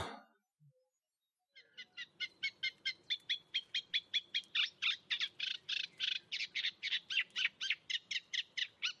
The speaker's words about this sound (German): Äh, fangen wir mit dem Teichrohrsänger an, oder? Der ist Ach, der Teichrohrsänger ist wichtig, ja. Pass auf. Ja, der ist nämlich Vogel des Jahres.